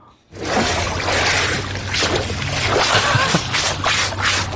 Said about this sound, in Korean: 이게요, 그, 맑은 강에 흐른다는, 있다는, 산다는 그 제첩. 제첩 잡아가지고 씻는 소리입니다.